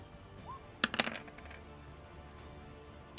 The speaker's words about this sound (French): Euh, bah écoute, bah, tu, vas, inaugurer le, petit lancer de dés. Euh, tu vas nous faire un petit test de technologie pour voir un petit peu euh, ce qui se passe.